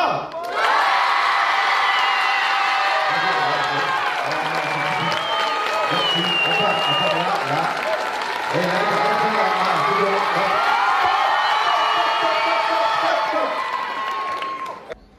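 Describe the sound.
A large studio audience erupts in sustained applause during a warm-up applause test, cheering, whooping and shouting, loud, holding at full intensity for about fifteen seconds with voices yelling throughout.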